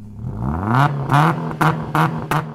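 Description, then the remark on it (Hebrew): A car engine revs up with a steadily rising whine, then roars through four sharp, rhythmic bursts of acceleration, loud with no voices. “שתאמיני מכונית. המטרה של המכונית הזאת היא אחת. להעביר את המשלוח המסתורי שלה ממקום אחד למקום שני במהירות הכי גדולה שאפשר”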